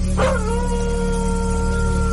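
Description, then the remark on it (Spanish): A dog lets out one long howl at night that swoops in sharply, then holds a steady, level pitch to the end, sounding over a constant low hum with no barking. “Hubo ladridos de perros en un par de ocasiones.”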